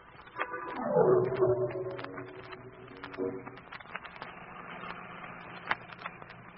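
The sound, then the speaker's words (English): A car engine revs up with a falling whine and pulls away from a doctor's cottage, then settles into a steady running hum with small clicks and rattles. No one speaks. “From where I was hiding, I saw them come out of the doctor's cottage, get into their car, and drive away.”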